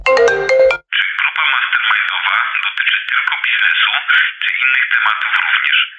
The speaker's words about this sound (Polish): Wiecie, po pierwszym telefonie ja myślałam, że bez problemu ogarnę, porobię sobie notatki, znam się na temacie, więc powiem wam co i jak, ale problem polegał na tym, że telefon nie przestawał dzwonić.